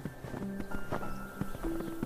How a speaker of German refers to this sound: Der Schnee knirscht unter deinen Stiefeln.